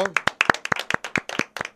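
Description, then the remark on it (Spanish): An audience applauds their padel coach at an MO Padel Entrenamiento event: a dense, fairly loud patter of overlapping hand claps in a quick, uneven rhythm that keeps a steady level for the whole short stretch. “Démosle un fuerte aplauso a su entrenador”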